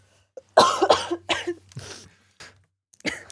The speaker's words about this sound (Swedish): Jag hostar jättemycket, jag vill inte göra det.